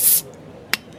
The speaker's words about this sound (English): Pop a bottle.